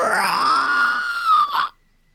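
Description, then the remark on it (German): A person imitates the distant, menacing roar of something very large, heard at night in a dark jungle from the direction of the sea, with one long, loud, growling vocal groan lasting under two seconds, then cutting off into silence. “Du hörst in der Ferne ein bedrohliches Brüllen.”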